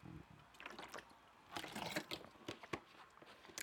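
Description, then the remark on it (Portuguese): Someone drinks water, with soft sloshing and a few irregular sips and swallows, fairly quiet, with no talking. “Tô a beber água.”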